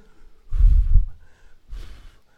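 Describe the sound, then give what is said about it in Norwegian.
Two deliberate breaths: a long, strong inhale-exhale, then a shorter, softer breath after a brief pause. No talking, just airy breathing. “Når jeg ånder, når jeg puster”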